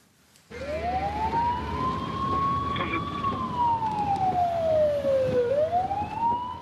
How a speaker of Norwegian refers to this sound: Det handler gjerne om liv når politiet rykker ut med sirener og blålys.